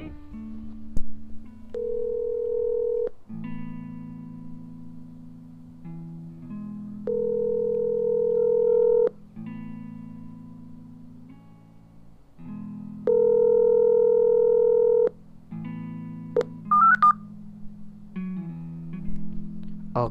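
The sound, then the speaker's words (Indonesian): Electronic telephone tones repeat in steady blocks about every few seconds with short gaps between them, plus a brief flurry of higher beeps near the end, like keypad dialing, as someone phones a friend. Nobody speaks. “Daripada kelamaan, mending langsung kita telepon aja ya orangnya.”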